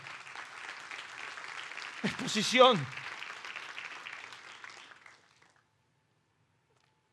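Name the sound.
audience applauding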